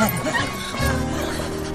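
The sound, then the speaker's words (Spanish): A dog named Aitor barks in a quick yappy burst, then lets out a drawn-out whining, howl-like tone that fills the rest of the moment. “Este es el mensaje de Aitor, el perro amigable en la mañana de este viernes.”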